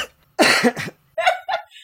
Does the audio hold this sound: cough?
yes